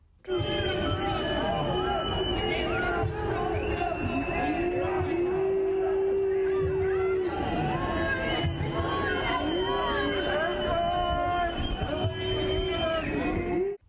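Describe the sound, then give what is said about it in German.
A large crowd in front of the Paulskirche shouts loudly and continuously at an FDP spokeswoman, voices overlapping into an angry, protesting roar with sustained yelled tones rising above the din for the whole stretch. “Diese Nachwirkungen bekommt auch die FDP-Sprecherin zu spüren aggressiv und laut macht das Publikum der Empörung Luft.”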